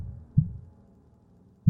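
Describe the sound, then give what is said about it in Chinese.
Two deep, muffled heartbeat thumps, a little over a second apart, each a low, soft thud over a faint background rumble, with no voices. “费瑞恩感到心跳加速，几乎就要叫出声来”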